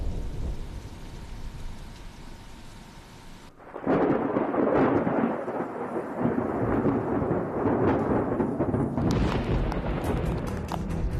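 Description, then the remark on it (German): Steady rain hisses, then at about four seconds a loud, deep thunder rumble from an approaching thunderstorm rolls in and keeps growling and crackling through to the end, powerful, with no voices. “Sie wollen vor das Gewitter fahren, um dort ihre Messsonden in den Aufwind zu bringen.”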